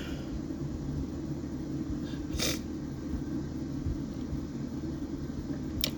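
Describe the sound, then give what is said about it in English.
A quick sniffle cuts through a steady low background rumble partway through, with a fainter sniff right at the end; no one speaks. “and I'm so sorry that you're sitting here listening to me sniffle while I do this”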